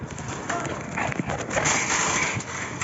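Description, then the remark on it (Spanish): A wild boar trots along a paved street in the town centre of Blimea, its hooves clattering in a quick, uneven patter, with a resident's warning voice and street noise in the background. “Eh, hay un vídeo que se ha hecho viral en redes sociales de un vecino advirtiendo mm, cuidado con el jabalí.”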